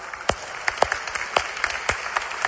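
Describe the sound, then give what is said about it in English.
Scattered audience clapping for visiting massage professionals, a handful of separate sharp claps at an uneven, slow rhythm, fairly quiet with no voices over it. “Feels like whoever started that clap probably got one of the first massages, huh?”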